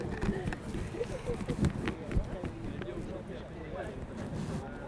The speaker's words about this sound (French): oui, il y, a pas mal de vent